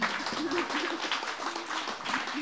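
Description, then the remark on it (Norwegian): Steady audience applause at a book launch, a dense wash of many hands clapping at an even level for a couple of seconds, with a faint voice murmuring underneath. “Applaus til dem.”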